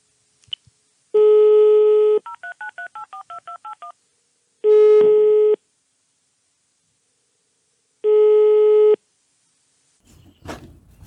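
A loud electronic Skype call ringing tone sounds three times in long, evenly spaced bursts, with a quick run of alternating two-pitch dialing beeps after the first, then a brief soft rustle at the end.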